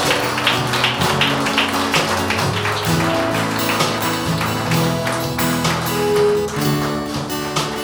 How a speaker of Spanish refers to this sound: Dale un aplauso al Cristo que vive y reina por los siglos de los siglos.